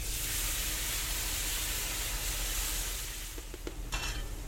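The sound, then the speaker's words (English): Garlic and pandan leaves frying in heated chicken oil until the garlic is golden brown, the first step of making chicken rice in Hong Kong, give a steady, loud, crackling sizzle throughout, with a few light scraping and clinking stirs near the end. No one speaks. “Then we add a whole load of garlic and some pandan leaves and fry it until the garlic is golden brown.”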